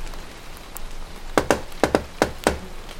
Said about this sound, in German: Ich klopf mal an.